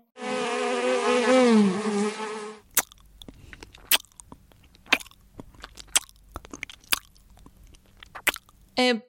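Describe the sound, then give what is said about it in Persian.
A loud insect-like buzzing drone fades out, followed by a series of sharp, crisp crunches at a steady, roughly once-per-second pace, as someone chews hard candy meant for the show's guest. “ببخشید اون آب نباتی که دارین میخورین برای مهمون برنامه است”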